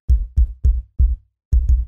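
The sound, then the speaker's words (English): A secret knock pattern: three quick, heavy knocks, a fourth after a short pause, then a rapid double knock. Loud, low, booming thuds with sharp attacks and no voices. “I think if I ever had like a secret knock, I'd be like, all right, I'll knock three times and then I'm going to freestyle something simple, like”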